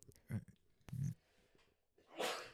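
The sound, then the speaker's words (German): A single sharp sneeze bursts out at the end, loud and hissy, after a few short, low breathy sounds that lead up to it. “Gesundheit.”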